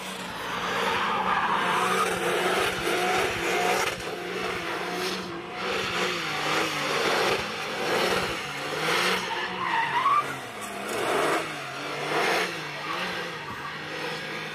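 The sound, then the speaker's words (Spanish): A car accelerates away hard with tires squealing loudly and continuously, the screech wavering in pitch over a roaring engine for several seconds, with no one talking. “Ay de ahí, ahí, se fue chillando goma.”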